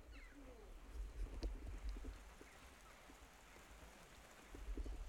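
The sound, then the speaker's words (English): Steady rain falls outdoors in Cumbria, a constant soft hiss with scattered drips and patters, and a low rumble rising and falling underneath. “Genrine, Cumbria rain.”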